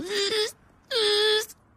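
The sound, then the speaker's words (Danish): A voice imitates the feeble engine of a large BMW revving as the accelerator is pressed: two drawn-out, nasal whining bursts, the second longer and steadier, separated by a brief pause, fairly loud. “når du træder ja. på speederen, så, ja. øh, så står han så frit af, så siger de nej tak.”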